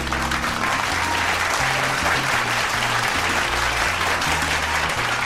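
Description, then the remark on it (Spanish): Steady applause on the show Juego Limpio, celebrating news that the host's mother has become a United States resident, fills the whole stretch. It is dense and continuous at a fairly loud level, with a low sustained musical tone or hum running underneath. “Venga el aplauso.”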